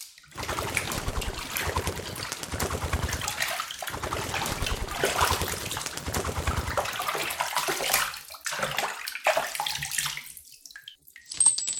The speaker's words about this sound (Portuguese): Depois, o papagaio voou para uma bacia de água no meio da sala. Ali, começou a banhar-se e bater com as asas.